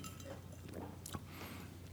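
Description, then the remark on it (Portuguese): A single bright clink of glasses tapping together in a toast, short, over a low steady background hum with no talking. “Um brinde. Então vamos brindar aqui.”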